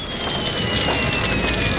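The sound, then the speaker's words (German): A large fire burning a shed crackles and hisses steadily, a dense, continuous roar of small pops and snaps with no voices and no pause. “Näher als zehn Meter konnte man nicht herangehen, so stark war die Hitze, die sich wie ein Ring um den brennenden Schuppen gelegt hatte.”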